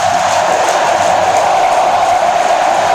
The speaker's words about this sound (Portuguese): E a, e a torcida aqui em Uberlândia se inflama. É o torcedor flamenguista torcendo.